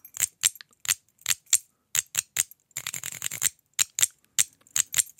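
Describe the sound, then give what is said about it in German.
A keychain jangles: bright metallic clinks of keys and a small golden Lego brick, in short separate shakes with a denser rattling burst midway, crisp and high-pitched, with no voices. “Also ich habe jetzt zum Beispiel hier in einem Schlüsselbund habe ich, hast du hier so einen goldenen Lego-Stein.”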